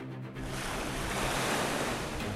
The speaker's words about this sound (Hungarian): Amerre lép, a hullámok ketté válnak. Örvénylő falakkal egy néhány méter széles folyosó tárul fel a Balaton két vége között.